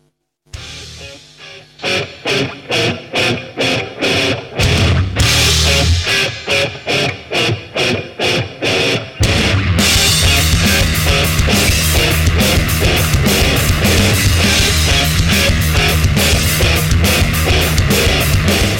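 Loud heavy metal from a Canadian science-fiction metal band's new single plays: distorted guitars chug in stop-start bursts with pounding drums, then the full band surges into a dense, driving, continuous riff. No one speaks over it.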